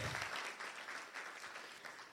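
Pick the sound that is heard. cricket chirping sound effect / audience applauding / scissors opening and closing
audience applauding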